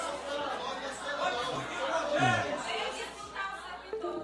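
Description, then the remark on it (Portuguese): A roomful of teachers chatter at once in a council chamber during a session, a dense, steady murmur of overlapping voices with no single speaker standing out, moderately loud throughout. “se vocês não se manterem calados, eu vou recolher vocês daqui, viu?”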